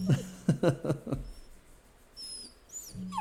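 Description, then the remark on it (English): A puppy whines in several thin, high-pitched whimpers, some rising and falling, fairly faint and spaced out, following a moment of muffled voice-like sound at the start. “I hear a puppy whining.”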